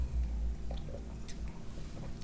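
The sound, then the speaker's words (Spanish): Soft wet mouth sounds of someone taking a few quiet sips of water, with small squishy swallows over a low background hum and no talking. “Deme un segundito, tomo un poquito de agua, así sigo hablando.”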